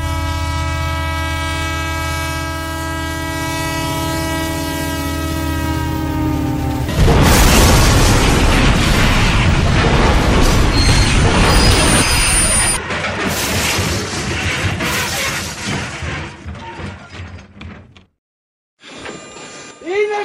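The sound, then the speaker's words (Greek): A loud, sustained train horn blares with a slowly dropping pitch, then gives way to a heavy, roaring rumble of a passing train that fades out near the end. “Αυτό το μπαμ που βάλατε με το τρένο.”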